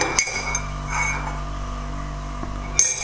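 A tea mug clinks a few times as tea is stirred, two quick light taps near the start and a brighter ringing one near the end, over a steady low hum with no talking.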